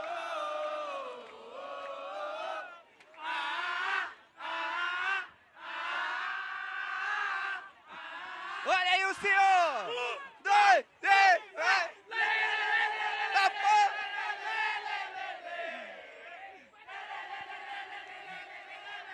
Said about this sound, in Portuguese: A galera aqui empestada de gente, mano. Animadíssima, mano. Bora ver o barulho da torcida.